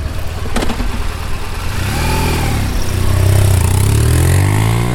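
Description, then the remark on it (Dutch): A motorcycle, brought out after the winter season, idles with a low rumble, then revs up through rising and falling pitch sweeps as it pulls away, the loud engine note climbing steadily. No voices. “Heb je deze tips opgevolgd en de motor van stal gehaald? Dan is het hoog tijd om op pad te gaan.”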